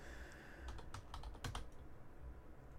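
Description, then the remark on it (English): A quick run of keyboard key presses, about eight or nine sharp clicks clustered within a second, fairly crisp over a low background hum, with no voices. “I hit, he hit a button. Just nothing, nothing happened. happened. Oh. I heard the from the key.”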